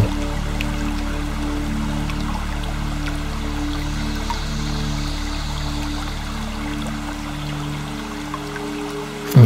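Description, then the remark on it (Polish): A small stream trickles and babbles steadily over rocks, flowing down from one rock step to the next, a continuous wash of water with no voices, while a soft low hum sits underneath throughout. “niech ten mały strumień spływa z jednego progu skalnego na drugi.”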